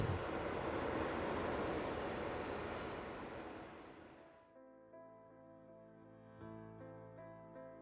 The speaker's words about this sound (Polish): Miałem wrażenie, że z głośnika dobiega cichy śmiech. Ledwie przebił się przez sygnał nadjeżdżającego pociągu.